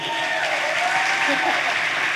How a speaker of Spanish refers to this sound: Fuerte aplauso